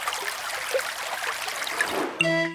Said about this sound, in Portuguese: Será o som de água a correr num rio, o som da chuva ou alguém que se esqueceu da torneira aberta? E a resposta correta é. A água a correr num rio.